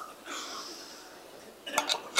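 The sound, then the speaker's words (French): A quiet sip from a cup, with a soft airy slurp followed by a few light clinks as the cup is set down, with no talking. “Je vais prendre une gorgée parce que c'est une bonne question.”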